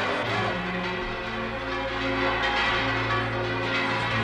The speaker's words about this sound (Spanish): A cada instante se llevaba las manos a las orejas, como si quisiera resguardarlas del ruido que hacían aún las campanas de la iglesia.